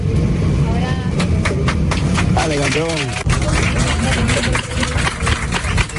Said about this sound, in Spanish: Bueno, estos que estás escuchando son los aplausos de los pasajeros cuando por fin ese avión aterrizó en Cancún y la policía de México entró en el aparato y se llevó a este hombre detenido.